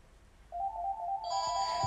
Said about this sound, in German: Es klingelt. Ähm, warte mal, ich gebe es mal. Wir werden mal genau im Podcast gestört.